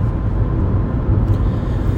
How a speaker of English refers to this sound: And guys, I haven't stalled once in this car. So. No, she's like crushing Woo! it. I know. I, am a good driver.